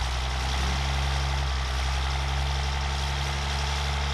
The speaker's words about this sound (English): Andrew Morrison's truck's about to take off. We're going to get some ambient noise here.